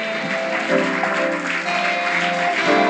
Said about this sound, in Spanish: Si vas a aplaudirlo al Señor, dale el mejor aplauso que tenga, porque esto no es para mí, es para Él.